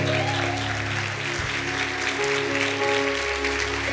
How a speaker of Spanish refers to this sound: Mujeres, mujeres, por favor, un aplauso.